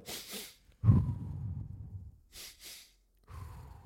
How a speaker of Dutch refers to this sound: En dan de laatste, zuiver ademhaling. Als je echt in paniek zit ontgaan, focus je enkel op ademhaling. Zoals dus bijvoorbeeld in deze.